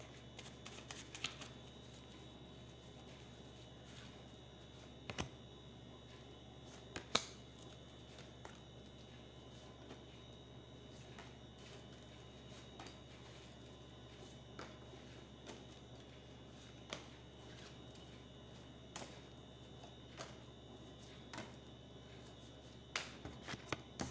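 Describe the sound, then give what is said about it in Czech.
Playing cards being shuffled by hand for a card reading, a steady riffling rustle with occasional sharper snaps and taps scattered through, no voices, fairly quiet overall. “A já už se dívám na vaši fotku, míchám u toho karty a podíváme se teda spolu, jak se bude barvit to období 2022 plus leden 2023.”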